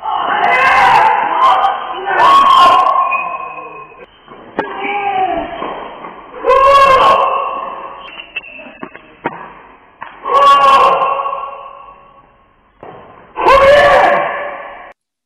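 Tennis rally with loud, drawn-out player grunts and moans on each shot, about five strained vocal bursts spaced a couple of seconds apart, with sharp ball impacts and squeaks between them.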